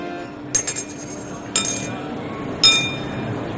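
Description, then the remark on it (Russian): Coins dropped as offerings one at a time at St Peter's Basilica in Rome, three separate bright metallic chinks with short ringing tails. The first rattles a few times as it settles, and the other two follow at roughly one-second intervals over a low steady hum. “Главному апостолу нужно оказать почет, а они все кладут по одной монете.”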